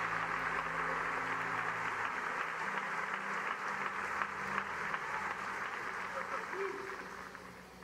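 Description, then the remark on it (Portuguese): An audience applauds to give glory to God, steadily, a dense, continuous wash of clapping that stays loud for several seconds before easing slightly, with a low hum and faint voices beneath. “Quantos podem dar glória a Deus e aplaudi-lo neste lugar?”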